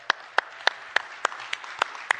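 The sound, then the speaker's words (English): An audience at Central Christian Church applauds, a steady crackling wash of clapping with one set of sharp, evenly spaced claps standing out in a quick, regular beat. No one speaks. “We're excited to have you, so give them a round of applause, guys, everybody.”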